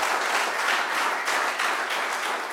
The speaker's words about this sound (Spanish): Dele palmas al rey. Aleluya.